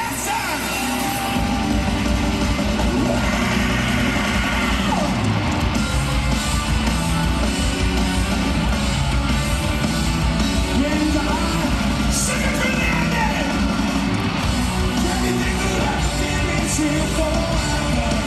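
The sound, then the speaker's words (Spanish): A loud, distorted phone recording made directly at a live rock concert, where a 12-year-old girl plays an acoustic drum kit with the band, pounding drums and band noise filling every moment, plus crowd yells mixed in, steady and overloaded for the full length. “El audio es muy malo porque es de un celular grabado directamente desde el recital.”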